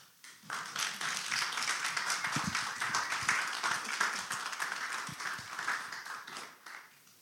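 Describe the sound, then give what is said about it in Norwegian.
A crowd breaks into sustained applause for the next preacher, dense overlapping claps that rise quickly, hold steady for several seconds, then taper off toward the end. “Neste predikant opp fortjener også en stor applaus.”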